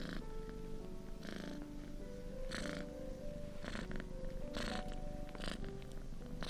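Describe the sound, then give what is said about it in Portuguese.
Cats purring in a steady, rumbling drone that swells with a breathy pulse about once a second, over a faint, sustained tonal backdrop. “Sua felicidade não conhecia limites, e eles esfregaram suas cabeças e seus narizes, enquanto seus ronronares poderiam ter sido ouvidos a quilômetros de distância.”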